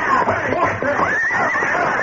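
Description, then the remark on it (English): Two horses neigh and whinny in loud, shrill bursts with rising and falling pitch as they plunge forward, rearing and pawing, overlapping continuously through a dense, busy mix for about two seconds. “Instantly, the two horses plunged forward, rearing and pawing viciously.”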